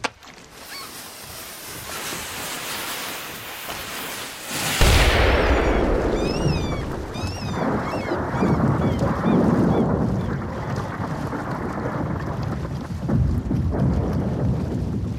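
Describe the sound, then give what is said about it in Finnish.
A single heavy rock-blasting explosion bursts out after a few seconds of quiet background, followed by a long, rolling low rumble that slowly fades, with a few faint bird-like calls above it; rocky hills being blasted to build new streets at a construction site in Helsinki, Finland. “Helsinki sijaitsee meren rannalla, mutta koko maasto on kallioista ja kaikkialla mihin aiotaan rakentaa uusia katuja, täytyy räjäyttää talonkorkuisia kukkuloita.”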